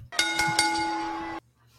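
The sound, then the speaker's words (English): A bright bell is struck three times in quick succession, its ringing tone sustained loud before being cut off abruptly. No one speaks. “Ring that bell.”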